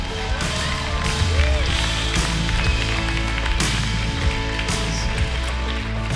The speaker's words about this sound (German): Gebt Jesus einen Applaus, der hat es wirklich verdient.